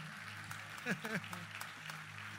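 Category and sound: crowd, audience applauding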